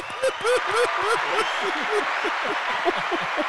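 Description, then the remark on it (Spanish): A burst of crowd applause with cheering and whooping voices layered over steady clapping, loud and continuous for a few seconds. “Un aplauso para el que dijo chiquitota.”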